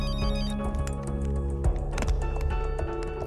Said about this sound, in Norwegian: Kofferten har mange små lommer i lokket. I lommene ligger det gamle Nokia-telefoner. Og når det ringer i en av disse telefonene, ja, så gjelder det å være på alerten.